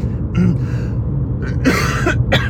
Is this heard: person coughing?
yes